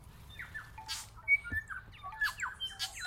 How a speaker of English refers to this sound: The valley is alive with the song of Korimako. Or is that just my phone ringing?